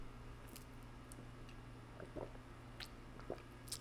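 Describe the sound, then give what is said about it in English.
Someone sipping water, with a few soft, wet gulps and swallows against a quiet background hum. Nobody speaks. “Sorry, drinking some water here.”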